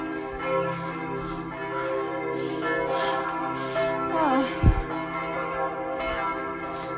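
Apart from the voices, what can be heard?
church bells ringing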